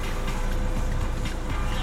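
car engine idling

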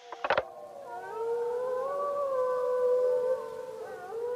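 wolves howling

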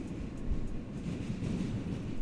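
subway train riding

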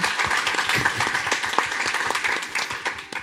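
audience applauding

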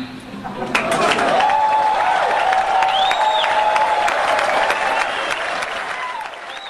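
audience applauding and cheering

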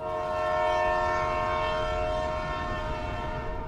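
train departing with horn

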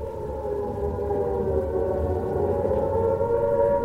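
air raid siren wailing

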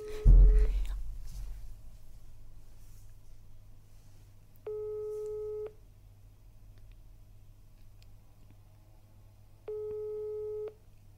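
phone call ringing tone

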